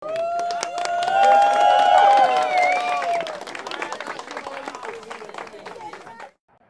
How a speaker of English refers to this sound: Cue in the applause.